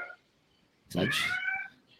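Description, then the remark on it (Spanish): A single drawn-out cat meow, fairly loud, rising then holding for just under a second before trailing off against a quiet background. “Ah, Escucha, hasta el gato.”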